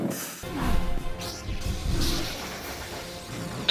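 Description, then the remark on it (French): A toilet flushes: a sudden rushing gurgle of water that swells, churns steadily for a few seconds, then begins to drain away. No one speaks. “Angok allume son sabre laser qui fait le bruit d'une chasse d'eau.”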